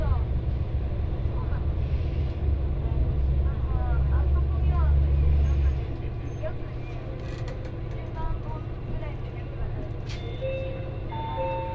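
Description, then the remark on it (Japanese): A one-man diesel railcar bound for Fukui runs with a heavy, steady low engine drone that is loudest for the first half, then eases to a softer rumble, with faint whines and rattles over it. “この列車は福井行きワンマンカーです”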